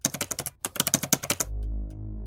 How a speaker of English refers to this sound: I started typing a code as my hand passed through the keyboard.